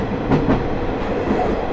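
The Ai Yoshinogawa Torokko trolley train on the Tokushima Line, between Awa-Ikeda and Sadamitsu, rolling along the rails with a steady low rumble, a couple of brief rhythmic clacks of the wheels rising above it. No voices.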